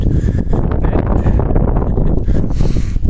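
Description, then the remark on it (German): Steady low-frequency rumble and buffeting of wind striking a microphone outdoors, loud and continuous throughout with gusty flutter, no clear voices. “Es ist aber auch der Wind hier heute.”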